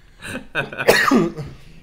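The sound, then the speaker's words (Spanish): A short run of raspy coughs from a person with a cold, three quick bursts with the last one loudest, ending in a throaty rasp, with no talking around them. “estoy algo resfriado, entonces voy a estar tosiendo de vez en cuando.”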